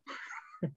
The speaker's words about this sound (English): Sorry about my dog interrupting the uh, the, the podcast. He's uh, he, he must have heard a squirrel walking around outside and decided to go crazy.